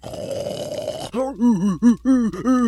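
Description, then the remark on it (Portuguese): A long, raspy snore drags on for about a second, then gives way to four short, voiced groaning grunts in a rough rhythm, fairly loud. “Ele, ele tá roncando, né?”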